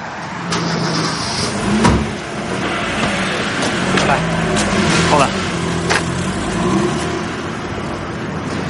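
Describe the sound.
A car pulls away with a steady engine rumble that rises slightly, mixed with scattered clicks and a door-like thud, and faint voices murmuring in the background.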